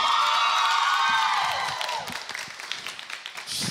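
A studio audience cheers and screams loudly, high-pitched shrieks blending into a dense roar that tapers into scattered clapping and crowd noise over a few seconds.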